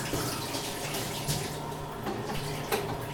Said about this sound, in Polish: Zatem możemy powoli przystępować jak przed każdą czynnością kuchenną najpierw zaczniemy od umycia rąk.